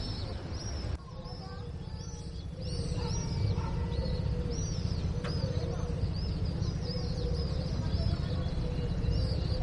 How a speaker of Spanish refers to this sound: Pájaros, coches que pasan, niños, voces la vida en su máxima expresión.